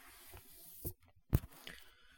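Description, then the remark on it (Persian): Brief rustling and handling noises with a couple of sharp scraping bumps as a phone is picked up and moved around. No speech. “من دارم این گوشی رو برمیدارم جابجا میکنم ممکن یکم صدا خشخش بیاد”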